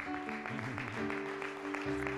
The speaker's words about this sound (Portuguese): Põe o um copinho aí, dá uma salva de palmas a Deus. Amém? Não, dá uma salva de palmas a Deus de verdade.